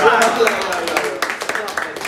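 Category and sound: crowd, applause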